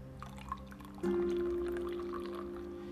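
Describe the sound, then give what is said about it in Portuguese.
A drink pours steadily into a cup for about two seconds, a continuous stream with a faint rising pitch as it fills, preceded by a few small clinks and handling noises. “Então é isso, coloque aí o seu cafezinho, a sua água, eu vou colocar o meu aqui.”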